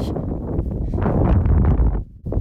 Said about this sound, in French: il y a du vent. Je vais me mettre un peu à l'abri.